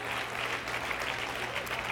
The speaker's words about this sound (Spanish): Si le va a dar el aplauso al Señor, déselo bien, gloria al Señor.